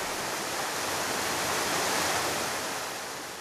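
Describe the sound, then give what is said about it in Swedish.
Steady, loud rushing of water pouring over the river dam at Broböle in Sibbo, a fish way for salmon, a dense continuous roar that swells slightly in the middle, with no voices present. “som har varma minnen från den här dammen i Broböle i Sibbo.”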